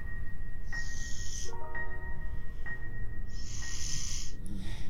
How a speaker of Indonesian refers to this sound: dia tidur dong guys dan ngorok lagi nih